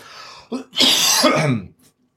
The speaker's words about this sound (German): nochmal husten.